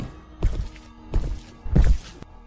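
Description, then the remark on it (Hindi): Three heavy, slow footsteps thud up a wooden staircase at an even pace, climbing toward a boy's room after crossing the hall and kitchen, each a little louder as they draw closer, over a faint low background hum with no talking. “अब उस लड़के को कदमों की आवाज़ भी सुनाई दे रही थी जो हॉल से होते हुए किचन में गई और धीरे धीरे सीढ़ियाँ चढ़ते हुए वो उसके कमरे की तरफ आ रही थी”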